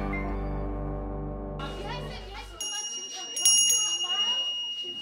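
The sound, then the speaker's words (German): A school bell rings steadily for about two and a half seconds, loud, signalling a change of classes. It then cuts off into a busy hubbub of voices, with a few bright metallic dings over the chatter. “Dieses Klingeln bedeutet, dass die Kurse jetzt gewechselt werden.”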